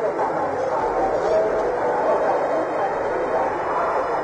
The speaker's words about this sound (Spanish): Así se oye el rumor entre los periodistas.